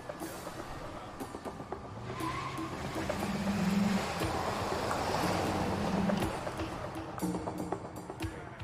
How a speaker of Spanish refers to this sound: Al fin pudieron poner en marcha la pickup y los sujetos se fueron.